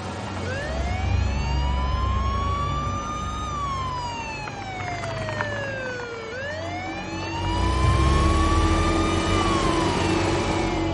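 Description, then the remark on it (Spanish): A police patrol car's siren wails in long rising and falling sweeps over the low rumble of its engine as it drives off, staying loud throughout with no voices. “Monta en un coche patrulla, enciende las sirenas y se marcha.”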